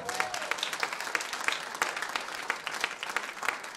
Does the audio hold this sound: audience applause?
yes